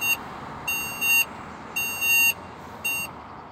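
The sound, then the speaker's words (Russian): A pedestrian crossing signal in Paris, designed for blind people, beeps in repeated high-pitched electronic tones while the light is green for walking, some in quick pairs, sounding clearly over a steady wash of street noise. No one speaks. “Вы слышите звук, который издает светофор на пешеходном переходе в Париже.”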